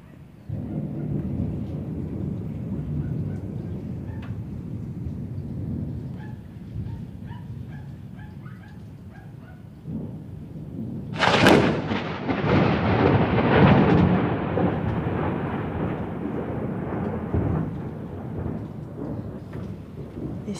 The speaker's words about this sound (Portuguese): Bem quando eu falo, o trovão para, né? Beleza, beleza. Eu preciso depois pesquisar o que é que faz o barulho do trovão.